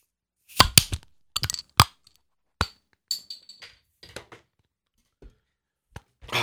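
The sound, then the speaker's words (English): Glasses of Guinness blonde beer clink together in a toast, a quick irregular series of sharp, bright taps with faint ringing, fairly loud, with short silences between them. “All right, gentlemen. Cheers. Cheers. Clink!”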